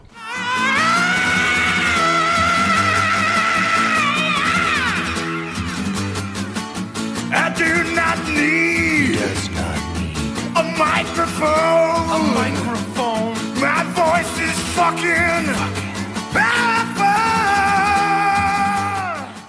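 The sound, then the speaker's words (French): A loud, dense hard rock song plays throughout, with a heavy distorted guitar solo bending and wailing over pounding drums, and screamed vocals cutting in. “Je trouvais ça marrant cet extrait-là, qui représente bien, je trouve, le truc avec euh, grosse guitare, euh, solo, euh, voix qui crie, et en même temps qui dit J'ai pas besoin de microphone parce que j'ai une super voix.”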